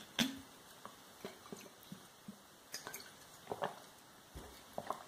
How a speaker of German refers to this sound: Ja, Kunstfreunde, Moment kurz, ich muss mal kurz wieder einen kleinen Schluck nehmen.